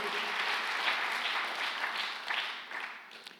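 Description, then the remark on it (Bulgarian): A large crowd claps to God in a dense, steady wash of applause, holding strong before thinning slightly toward the end, with no one speaking over it. “О, ако ръкопляскаш на Бога, ръкопляскай като че ти си човек, който ще говори думи на живот.”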